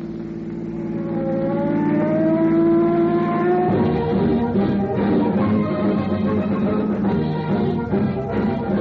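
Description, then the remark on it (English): Traffic speeds by on the busiest street of the West's largest city: a loud engine climbs steadily in pitch as it accelerates, then gives way to a dense, continuous rush of passing vehicles on the boulevard, with no voices. “busiest street of the West's largest city, streams of traffic speed endlessly by.”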